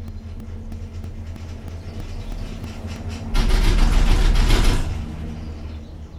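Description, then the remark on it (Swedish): A small cable car cabin in Nizhny hums and rumbles steadily on its line over the Volga river towards a residential area, then a louder rattling clatter swells for about a second and a half before the low drone settles back. No one speaks. “Jag sitter i en liten burk i en sån här linbana som de har i Nizjnij som går över Volga till ett bostadsområde på andra sidan.”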